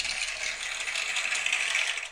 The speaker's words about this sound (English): So I, I have a ton of these sound effects that I'm gonna play throughout the course of you know the episodes moving forward. I'll play a few of them now for you. We have an applause